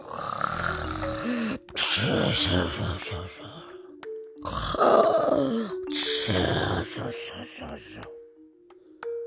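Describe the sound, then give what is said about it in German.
A voice imitates a giant's loud, rumbling snoring, two long drawn-out snores with a gravelly grunting rasp on each breath, fairly loud, with brief pauses between them. “Dann fing er an zu schnarchen, dass das ganze Haus wackelte.”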